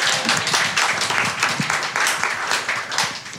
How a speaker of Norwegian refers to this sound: Og jeg må faktisk bare si at Vi har et bystyrevedtak på at nummer tre skal være Drobog Nederås på sokkelen. Så en applaus for det.